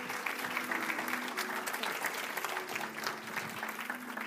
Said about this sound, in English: Y'all can come down. Thank you so much. Give them a hand, you guys.